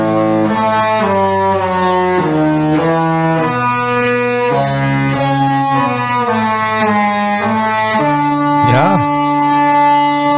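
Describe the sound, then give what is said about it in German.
The loud horn (typhon) of a Disney cruise ship plays a Disney melody. Sustained harmonic notes step up and down in a tune that fills the whole clip, with a brief wavering pitch bend near the end. “Okay, eigentlich muss ich sagen, sind vier Dinge, weil ähm, das Schiffshorn, das Typhon, das klingt bei Disney nämlich so.”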